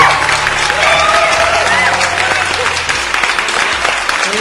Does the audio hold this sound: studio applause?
yes